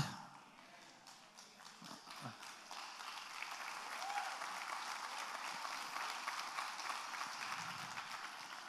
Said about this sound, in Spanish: Sí, porque tiene que haber algún problema de fornicación para que aplaudan así.